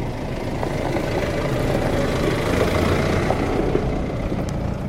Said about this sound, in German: Und wie ihr hört, wir sitzen gerade nicht drinnen. es fährt gerade jetzt genau ein Traktor an uns vorbei. Ein kleiner Traktor, aber genau an uns.